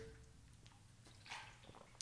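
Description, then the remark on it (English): A quiet sip of water, with soft wet slurping and a small swallow about midway, followed by faint liquid clicks against a low background hum. “Let me take a sip of water here.”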